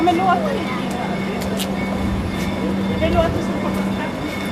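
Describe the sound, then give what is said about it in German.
A steady low electric hum and broad rumble of a train idling at a platform of the station in Uppsala, Sweden, from which trains run to Stockholm every few minutes, at platform 10 on a summer morning, with indistinct voices and a few faint squeaks in the background. “Und von der komplett neu aufgebauten Station gleich daneben pendeln alle paar Minuten Züge nach Stockholm.”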